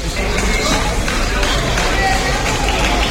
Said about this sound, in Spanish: Ha resultado ilesa, ya nos recuerda lo ocurrido y los testigos aplaudían a los agentes cuando lograron introducirla en la casa a través de la ventana. Este es el momento. Son 20 metros.